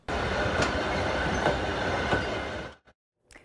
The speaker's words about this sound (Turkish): Yeni yükleriyle birlikte bir kez daha Çin'e doğru hareket etti ihracat treni.